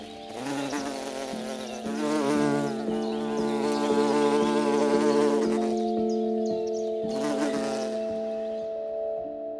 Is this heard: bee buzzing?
yes